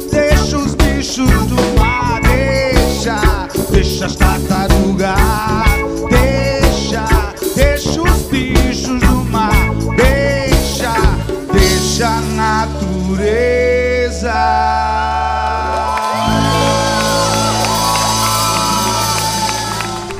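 A Brazilian pop song plays loudly with a steady, driving percussion beat and layered melodic instruments, then the rhythm drops away near the end, leaving sustained, shimmering tones.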